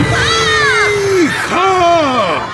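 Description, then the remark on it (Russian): Panicked screaming from a crowd of students dropping their sweets and running for the exit of a hall after a troll is announced: two long, high, wavering shrieks that rise and fall, one after the other, over a steady bed of noisy crowd commotion. “Всеобщая паника. Побросав сладости, ученики бегут к выходу.”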